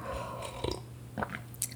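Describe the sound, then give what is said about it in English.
Someone takes quiet sips of coffee from a mug, with a few brief slurping and swallowing sounds spaced out over a moment of near silence, no talking. “Um, I'm just going to take a sip of my coffee.”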